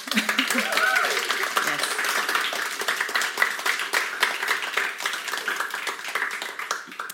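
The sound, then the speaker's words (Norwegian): An audience at a book launch for the debut novel 'På visse betingelser' applauds: dense, steady clapping that fills the whole stretch at an even, moderate loudness, with a brief voice audible near the start. “Ta en applaus til.”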